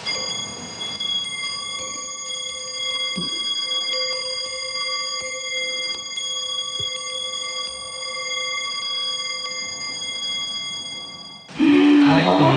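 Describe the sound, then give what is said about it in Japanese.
Iron hibashi fire chopsticks, made from the same material as Japanese swords, struck together, producing a bright, sustained metallic chime with many shimmering high overtones that ring on steadily for about eleven seconds before abruptly giving way to louder noise. “このとっても光ってるこの火箸が刀と同じ材料で作る火箸なんです。兄が日本刀を作っておりまして、でその素材をばしを作るんですが、これはもう日本代表する音色でとっても綺麗な音しますじゃあいきますね、はい”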